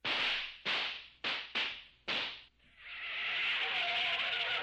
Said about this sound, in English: This is like a combination of the worst sound effects with some Flintstones sound effects.